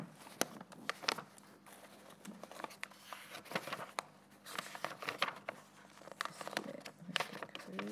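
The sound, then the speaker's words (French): Dry rustling and crinkling of paper sheets being handled and shuffled as someone searches for a page, with irregular sharp flicks and soft scrapes continuing for several seconds, no voices. “Ça, il faut qu'on fasse quand même un investissement hein, dans le fameux micro qui est censé nous permettre de tenir les feuilles et en même temps de trouver la page.”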